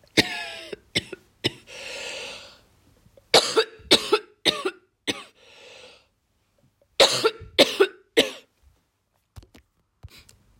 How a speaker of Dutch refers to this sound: Excuses, ik had hem even stopgezet, want dat was een behoorlijke hoestaanval.